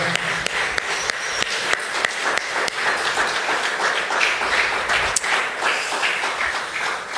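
A church audience stands and applauds Jesus steadily, a dense crowd of hands clapping with sharp individual claps poking through the continuous wash of sound, sustained for several seconds without talking.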